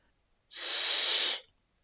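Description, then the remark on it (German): A single sustained, breathy soft German 'ch' sound spoken by a voice, a soft hiss like a cat's, lasting just under a second, moderately loud with silence before and after. “Und jetzt probiert ein weiches Ch zu sprechen. Das ist fast wie das Geräusch von einer Katze.”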